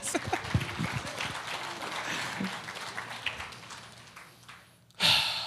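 Steady crowd applause, a dense crackle of many hands clapping, fades down over several seconds before a short, louder burst of noise near the end.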